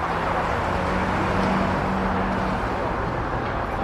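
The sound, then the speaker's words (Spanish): Steady, dense city traffic noise fills the Glorieta de Cuatro Caminos square in Madrid, Spain, busy with people, cars, buses and shops: a continuous roar of cars and engines with a low hum running through it. “Este hervidero de gente, coches, autobuses y tiendas, este punto de encuentro que es la glorieta de cuatro caminos, hoy podría decirse que se inició tal y como lo conocemos hoy.”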